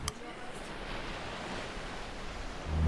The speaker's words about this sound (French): Portugal parce que il y a le bruit de la plage.